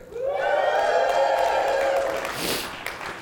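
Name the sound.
audience cheering and shouting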